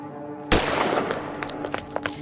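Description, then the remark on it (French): A single gunshot cracks out sharply at night in a walled cemetery after a brief quiet moment, its echo fading slowly while a few faint scattered clicks and crackles follow. “Un gardien se précipite là où le coup de feu a retenti.”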